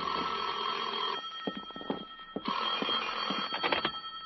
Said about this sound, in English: At 10, my phone rang.